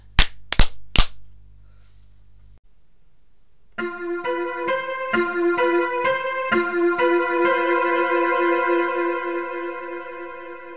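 Three sharp hand claps in quick succession as two people clap their hands, then a brief low hum and a pause before a bright, ringing tonal jingle with repeated struck notes takes over.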